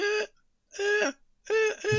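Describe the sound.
A voice imitates the horn of a car being honked by someone repeatedly hitting the steering wheel, with three short, nasal honks separated by brief pauses, the last one doubled. The imitation is clear, with no other sounds around it.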